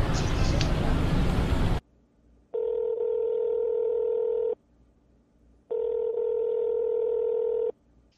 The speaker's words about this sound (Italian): Finalmente il gruppo è al completo e tutti stanno ultimando le loro presentazioni quando a qualcuno squilla il telefonino dalla tasca dei pantaloni.